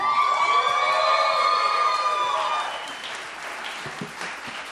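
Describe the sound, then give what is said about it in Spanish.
An audience at a live show claps steadily for a big band, a dense wash of applause with sustained cheering tones on top at first, then thinning into lighter, scattered clapping as it winds down. “Un aplauso otra vez para la Big Band.”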